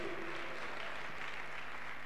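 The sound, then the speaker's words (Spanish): An audience applauds the Lord steadily, a dense wash of many hands clapping at once, sustained and fairly loud throughout with no voices standing out. “Un aplauso grande para el Señor que nos da ese gozo que es el gozo de la salvación.”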